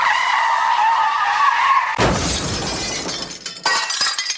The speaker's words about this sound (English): So uh, I'm sitting here on a golf cart, kind of driving through some of my inventory, and I hear a loud crash and then tire squeals and then like this loud noise and then a boom, a big crash. Was it like this?